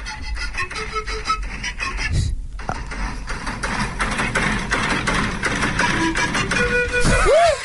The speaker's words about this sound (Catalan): per exemple, aquest, aquest, aquest reel que diu que quan la teva rentadora fa soroll pots fer això.